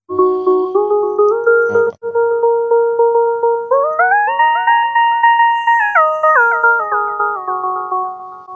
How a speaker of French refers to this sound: Et euh, après, il y a un troisième onglet, lead. Alors, je sais pas comment on le traduit. C'est la mélodie, c'est la voix de tête. Ouais, moi j'ai mis, euh, j'ai mis que c'était un peu comme des plages de synthé en fait.